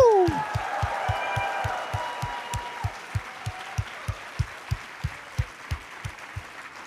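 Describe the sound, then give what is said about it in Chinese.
An audience claps for themselves with eyes closed, together in a steady, even rhythm, about twenty sharp claps in a row, with a loud whooping cheer from a voice at the start. “啊，眼睛闭起来，给自己拍手，呜”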